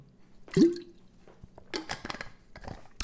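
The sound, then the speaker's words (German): Someone takes a drink from a small water bottle: a quick liquid slosh, then a few wet gulps and swallows, ending with a faint click of the bottle. “Ah, ich habe hier meine kleine Wasserflasche. Wo ich, trinke ja wieder so viel Wasser, weil ich stay hydrated.”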